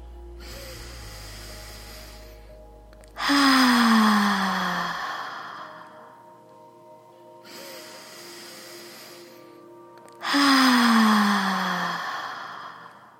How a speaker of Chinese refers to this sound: 那今天呢，我们会用双倍吐气法来做呼吸的练习。所以，如果说呢，你吸气三秒，吐气就用六秒；如果你吸气用了四秒，那吐气呢就用八秒。吐气的时候呢，我们嘴巴张开，发出“哈”的声音，听起来呢就会像这样子。